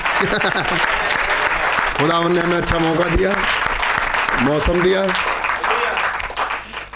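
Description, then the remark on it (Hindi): An audience breaks into steady, dense applause for God that holds for several seconds before thinning out at the end, while a man keeps speaking over the clapping. “सो इस बात के लिए तालियां खुदा को”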